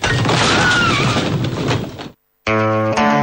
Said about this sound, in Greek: Το άγαλμα είναι αυτό. Το άγαλμα πάνω στα άλογο δεν άντεξε. Πόσο να αντέξει να ακούει όλα αυτά από κάτω και κατέρευσε.